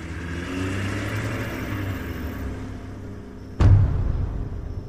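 The engine of a black SUV revs as it pulls out of a warehouse and drives off toward the main road, a steady mid-pitched drone with harmonic whine, then a sudden loud burst near the end as it accelerates hard.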